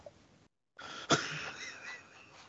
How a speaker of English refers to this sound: Sorry, I was coughing.